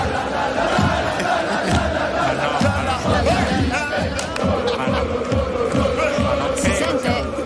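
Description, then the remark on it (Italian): A large stadium crowd, said to include a singer, sings an Inter football chant together: a dense, loud wall of voices with a steady rhythmic pulse and sustained melodic lines throughout. “Allora abbiamo beccato l'audio di … che canta il coro dell'Inter. Ah, senti allo stadio, allo stadio.”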